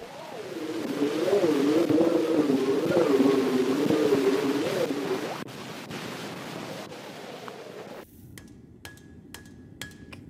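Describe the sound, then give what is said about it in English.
An elevated train in New York, in an 1878 field recording made from 40 feet away, rumbles and whines through heavy hiss, a wavering drone that fades into scattered metallic clanks and clicks near the end, with no voices. “It's an elevated train in New York, recorded from 40 feet away.”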